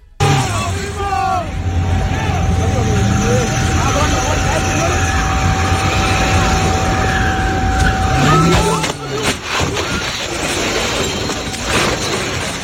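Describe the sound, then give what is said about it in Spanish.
A car roars along loudly and steadily for several seconds as it enters a roundabout at high speed in Andalusia, Spain, then a sudden crash with scraping and clattering around nine seconds as it overturns and hits a parked vehicle, followed by rough rumbling noise. “Un coche volcó en una glorieta en la que entró a gran velocidad, chocó contra otro vehículo estacionado”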